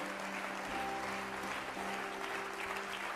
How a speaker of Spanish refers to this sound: Yo no sé si estás en el piso, pero Dios te va a levantar. Vamos, darle fuertes palmas a Dios.